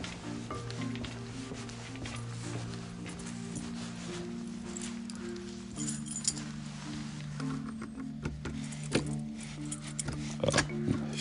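Keys jingle and clink in short metallic bursts, growing busier and louder toward the end, over a steady low droning hum; no one speaks.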